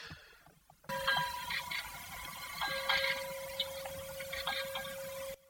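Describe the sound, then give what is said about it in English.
The raised and preserved ship's bell of HMS Hood being rung over and over, bright metallic clangs layered on a steady, sustained ringing tone, loud for about five seconds before stopping abruptly. “that's hms hood's bell um, being rung again now it's been preserved and it's raised uh, so that that's wonderful”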